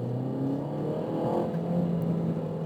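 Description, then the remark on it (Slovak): A car engine revs steadily while driving on city streets, its pitch rising and then dropping, with a couple of faint exhaust pops cutting in near the end. No voices, just continuous engine noise. “a na jednotke to nejde, počkaj, ale toto je skvelá vec, kvôli ktorej by som si to no, kúpil. Strelba do výfuku.”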